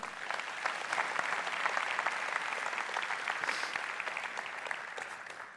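A crowd claps in a sustained round of applause, a dense, steady patter of many hands that holds at an even level for several seconds without any voices.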